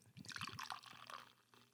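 Beer, a New England IPA, pours into a glass with a bright, fizzy gurgle, bubbling and splashing for a couple of seconds before tapering off.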